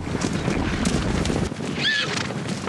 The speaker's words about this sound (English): It's hard to imagine anything surviving on this expanse of badlands in northern Wyoming. Sagebrush blankets the high desert all the way to the Rocky Mountains. But in this empty quarter of the cowboy state is a thundering herd of Mustangs.